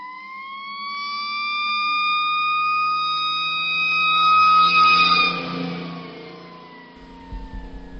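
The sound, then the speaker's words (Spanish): A fire truck siren wails steadily and loudly, its pitch sliding slowly up and then down, while a low engine rumble grows underneath toward the end as the vehicle passes by. “bueno vamos a poner aquí el sonido de los bomberos”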